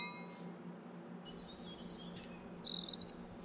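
Several birds chirp and call in short, high-pitched bursts over a steady low hum of background noise, the calls growing busier and louder toward the end, at Parque das Aves, a tropical bird park about 100 meters from Iguazu Falls on the Brazil–Argentina border.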